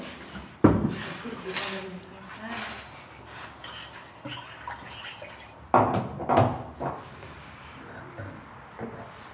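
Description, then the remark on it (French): Ice cubes clink and clatter into glasses and a pitcher, a series of sharp bright knocks and rattles, with brief pauses and a few faint voices murmuring in the background. “On va se mettre des glaçons dans les verres là.”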